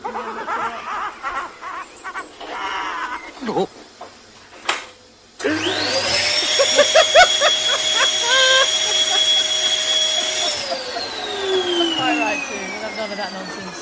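Brief voices and laughter, then a Hoover vacuum cleaner switches on, its motor whining up to a loud, steady roar for several seconds before the pitch sags as it winds down.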